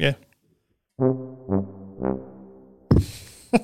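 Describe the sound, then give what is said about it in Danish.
A mournful descending tuba outro sound effect of three sustained low notes, each dropping in pitch, played loud, followed by a burst of laughter and talk. “det, var, øh, det var øh, outro, skulle til at sige. Tuba outro hedder den.”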